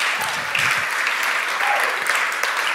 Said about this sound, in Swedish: Härligt, ge dem en, vi ger dem en applåd.